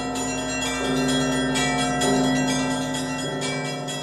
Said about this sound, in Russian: Весной тут устраивают фестивали, на колокольне выступают звонари. Наверняка это очень красиво все звучит.